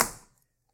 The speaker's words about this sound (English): yeah, uh, he just dropped the notebook, ladies and gentlemen. Yeah when it hits the table, all that sound you hear, that's um, energy that originally was I put into it with my muscles, and I'm dropping it again.